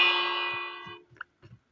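A single hanging bell gong in Minecraft rings out with a bright, shimmering metallic tone that slowly decays over about a second, followed by a few soft low thumps and clicks.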